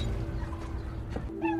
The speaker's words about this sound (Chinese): 喵，死者的那只猫被找到了。